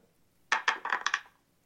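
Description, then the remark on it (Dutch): A digital dice app's shake-and-roll effect as a many-sided digital die is shaken: a quick burst of about six bright, clattering clicks tumbling over under a second, clear, then fading out; the roll lands on 26. No one speaks. “Komt ie hoor. Even schudden.”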